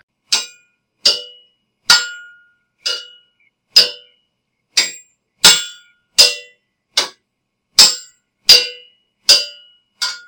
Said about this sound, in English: sounds hinted at jousting tournaments outside